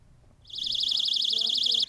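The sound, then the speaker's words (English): A personal safety alarm, of the kind distributed by schools to children in Yilan County and set off by pulling a tab, blares a loud, shrill electronic tone that warbles rapidly, starting abruptly after a quiet moment and sounding continuously for over a second before cutting off. “Distributed by schools, the alarms make a loud beeping noise when activated.”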